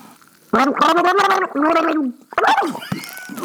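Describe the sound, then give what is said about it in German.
Loud, bubbly gargling of water in the mouth, with a voiced, warbling tone in several bursts separated by short pauses, ending in a few sputtering gurgles. “Ich nehme mal Wasser mhm. in den Mund.”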